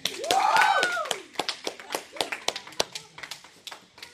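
A group claps in a burst of applause for a speaker after his speech, dense and loud at first, then thinning into scattered, uneven claps that trail off. A brief rising vocal whoop sounds over the opening claps.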